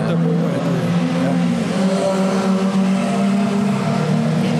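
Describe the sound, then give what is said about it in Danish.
Race car engines roar steadily and loudly, their droning pitch holding for several seconds as the cars drive past, with a faint murmur of voices underneath. “Nu kommer der lige på biler med her.”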